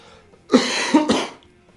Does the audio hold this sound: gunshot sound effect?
no